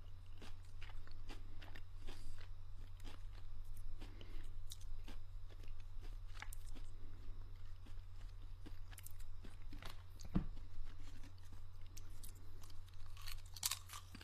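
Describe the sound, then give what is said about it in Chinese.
Soft, intermittent crunching and chewing with small bites and mouth clicks at an irregular pace, all fairly quiet over a steady low hum. Nobody speaks. “我已经尽量吃的很轻了，连舔手指的声音都已经尽量不让你们听到了”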